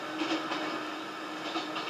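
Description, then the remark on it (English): A passenger train rolls steadily along the rails at night, pulling away into a starlit night, a continuous broad rumble with faint rhythmic clacks rising and falling, with no voices. “We boarded as quietly as was possible, trying not to wake the other passengers, and stowed our gear and settled into our seats, waiting for the train to pull away into a starlit night.”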